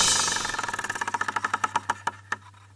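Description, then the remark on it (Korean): A lottery number machine spins during a morning radio show's draw of the second number, landing on number 7, with a whirring rattle that breaks into rapid mechanical clicks, the ticks steadily slowing and spreading apart as it winds down to a stop, fairly loud. “자, 두 번째 번호 돌립니다. 자, 갈게요. 하나, 둘, 셋. 갔습니다.”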